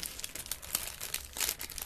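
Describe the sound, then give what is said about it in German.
Thin, smooth paper crinkles and rustles continuously, with a few louder crackling bursts as it is handled and unfolded; no voices. “Das Papier so, ist so dünnes, glattes Papier. Noch. Scheiße, ich habe Angst, dass es jetzt reißt.”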